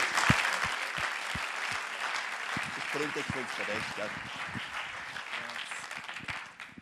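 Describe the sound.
An audience applauds as a speaker is welcomed, a dense wash of many hands clapping at once that holds for several seconds, with a voice briefly rising over it midway before the clapping tapers off.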